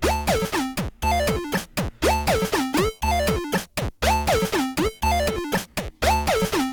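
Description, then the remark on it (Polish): Bright, buzzy chiptune synth tones from a Teenage Engineering PO-20 Arcade pocket synthesizer play a fast repeating pattern of stepped, glitchy notes with pitch sweeps and stuttering effect cuts, the sound changed by holding a button and turning the left knob, loud with no voices. “Teenage Engineering PO-20 Arcade”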